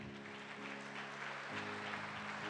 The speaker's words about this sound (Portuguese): Dá uma salva de palmas ao rei.